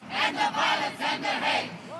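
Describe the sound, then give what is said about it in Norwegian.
Several thousand protesters against Donald Trump, holding placards outside a New York hotel where Republicans held a gala dinner, chant a slogan in unison, their voices rising in four loud, rhythmic surges with brief dips in between, the shouting steady and forceful throughout. “Utenfor hotellet der Trump og de to rivalene Cruz og Kasich talte til New Yorks republikanske parti, holdt demonstrantene plakater og ropte slagord.”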